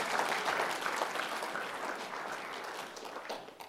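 An audience applauds together to welcome three people coming up to be baptized, a dense, steady wash of many hands clapping at an even loudness before it starts to thin out and fade at the end. No one speaks over it.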